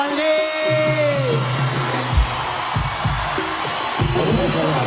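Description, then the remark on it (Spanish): A live crowd at a cumbia performance applauds and cheers loudly and steadily throughout, with occasional whoops over a dense wash of clapping and some tonal sound underneath. “Vamos a pedir un fuerte aplauso para los amigos y amigas de la Valdés.”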